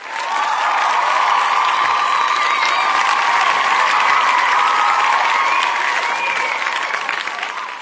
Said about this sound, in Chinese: 白吃白喝的顾客一听，老板出来了，原来这么大方的人是他呀，顿时响起了雷鸣般的掌声。